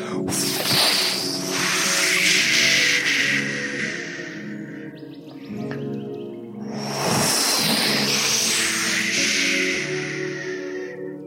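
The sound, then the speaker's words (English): A person imitates waves crashing against a beach with their mouth: two long, breathy hissing swells, each rising and fading slowly, with a brief quieter lull between them. “Yes, that is my mouth doing the sound effects. I am a sound effects master. This is the waves crashing against the beach.”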